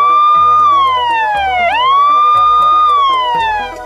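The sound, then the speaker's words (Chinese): A loud fire truck siren wails alone, its pitch gliding slowly downward, then sweeping back up and holding high, with steady low tones humming underneath and no voices. “仔细听好了，雨刷的按钮是黄色的，警报器的按钮是蓝色的。”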